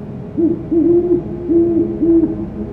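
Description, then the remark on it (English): A great horned owl hoots four times in a low, soft rhythm, each note a short rising-falling tone, captured by an automated recording unit and heard clearly over faint background hiss with no talking. “The song of the great horned owl is one of the most recognizable bird sounds.”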